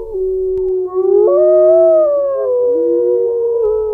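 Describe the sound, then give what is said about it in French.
Loud, mournful howling like an injured dog, a long wavering cry that rises and slides in pitch, with overlapping tones suggesting more than one howl, heard alone without any talking. “Cela ressemble à ceux d'un chien blessé.”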